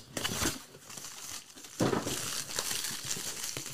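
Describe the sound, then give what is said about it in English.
Crinkling packaging paper being unwrapped, a continuous crunchy rustle with sharper bursts of crackle, fairly loud and with no talking. “Listen to all that crunchy. Yeah, that's crunch.”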